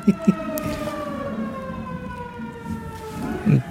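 A siren wails steadily outdoors, its long sliding tones drifting slowly downward, with a couple of brief thumps near the start and end.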